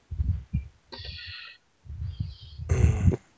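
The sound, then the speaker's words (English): A belch: low, gurgling rumbles in several uneven bursts, swelling into a louder, raspier burst at the end, fairly loud with no talking. “Take it right and a belch and say, right then, what's for breakfast?”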